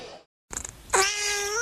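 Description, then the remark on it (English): A cat named Jumpy lets out one long, loud meow, following a short gap of silence and a few brief scuffling sounds. “This is the sound of Jumpy the cat.”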